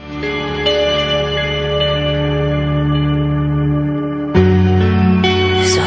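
A new song with a female singer starts playing on the radio program Distorsión 923, dense sustained chords drenched in echo and reverb, loud and steady, swelling into a brighter, fuller texture near the end.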